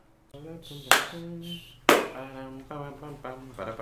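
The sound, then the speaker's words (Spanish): Two loud, sharp hand claps land about a second apart as audio sync marks, each a crisp smack with a brief ring-out, while a man keeps talking in a sustained, drawn-out voice around them. “Listo, ya hay marcas de sonido.”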